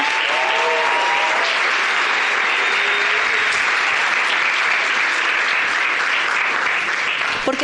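An audience at a business gathering claps steadily and loudly for the group's leaders, a dense wash of applause that holds at full strength for several seconds without pause, with a few faint voices rising briefly above it.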